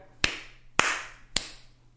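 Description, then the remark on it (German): Three sharp hand claps at a steady, even pace, each a crisp snap with a short ringing tail, over a faint low hum and no talking. “Hm, okay, ich mache den angenommen Klatscher.”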